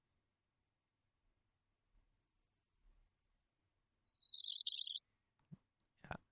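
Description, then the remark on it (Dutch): A neutron star radio signal turned into sound, from a source that makes repeating flashes: a loud, piercing high whistle gliding slowly downward for several seconds, breaking into a shorter falling burst, then a couple of faint clicks. “Misschien dat het geluid nog een keer afgespeeld kan worden.”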